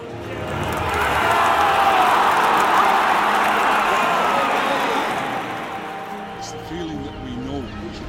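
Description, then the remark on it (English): A huge football stadium crowd roars and cheers in a dense, sustained wall of sound that swells loudly, then eases slightly, with a voice emerging near the end. “That noise is something unique. It shakes your soul.”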